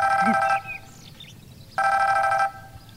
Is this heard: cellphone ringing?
yes